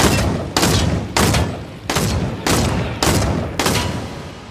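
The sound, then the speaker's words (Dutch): Video game gunshots fire in a steady series, about seven loud, sharp cracks roughly half a second apart, each trailing off in a rumbling tail before the next. No voices are heard. “En die schiet je heel erg hard neer. Pats.”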